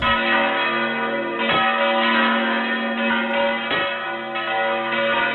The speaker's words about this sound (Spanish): Tras su muerte repicaron los sonidos de los campanarios de Castilla.